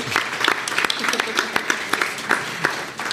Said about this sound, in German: Applaus ist immer gern genommen.